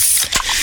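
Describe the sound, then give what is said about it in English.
A can of Pepsi cracks open with one quick, sharp pop amid a bright, steady fizzing hiss that carries on fairly loud, with no voices. “Oh, yeah, that's the sound of a freshly opened fizz filled Pepsi.”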